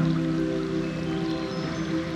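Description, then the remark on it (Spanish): Steady flowing stream water runs continuously at a moderate level, blended with a soft sustained musical drone. No one speaks. “Sientes la brisa, el agua,”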